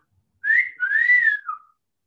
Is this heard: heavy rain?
no